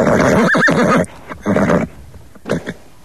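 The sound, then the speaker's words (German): A stallion, Hotte Glindo of Niederfino, lets out a loud, shaky whinny, then gives two breathy snorts with short pauses between them. “Und zwar Viren und Schnauben von Pferden.”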